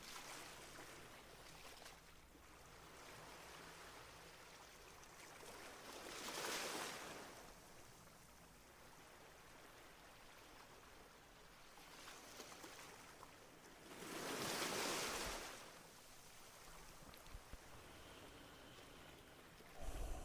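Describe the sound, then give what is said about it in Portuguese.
Small sea waves wash gently onto a beach, two soft surges swelling and receding over a steady hiss of water, with no voices present. “Vamos imaginar que estamos numa praia e que as pequenas ondas do mar chegam até ao nosso corpo, até aos nossos pés.”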